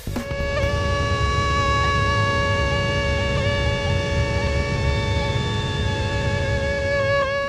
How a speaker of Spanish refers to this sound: El causante de este molesto sonido es A. Un mosquito tigre asiático, de la especie Aedes albopictus.